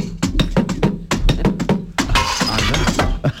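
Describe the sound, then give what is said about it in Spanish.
A rapid series of sharp knocks and rattling clinks from a chair leg beating on a suitcase holding marbles, a homemade instrument called 'La maleta con porra', with a denser clattering burst in the middle before the hits resume. “Que es darle con la, con la pata de una silla a la maleta con unas canicas”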